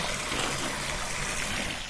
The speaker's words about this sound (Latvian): Aiziesim, palaidīsim viņām ūdens arī. Lai var padzerties. Tā. Nu, tad tagad no cisternas līst ūdentiņš, redz, un nāks padzerties gotiņas.